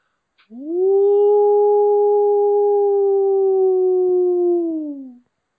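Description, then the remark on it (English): A bull elk bugle pitched low and held steady for several seconds, sounding much like a wolf's howl, rising slightly at the start and sliding down at the end. It is loud, clear and alone. “we heard a bull, and and and we call. I nicknamed him the night before the wolf because he was. This is how his bugle sounded, and I'll play a clip for you guys.”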